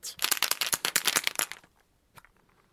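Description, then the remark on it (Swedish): A die is rolled to decide a Färjestad–Rögle ice hockey match. It rattles and clatters in a quick burst of sharp clicks for about a second and a half, then settles on a three, with one last faint tap after a short pause. It is fairly loud. “Och vi får en trea på tärningen där Färjestad tar hem första matchen.”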